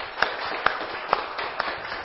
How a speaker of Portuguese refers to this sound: uma salva de palmas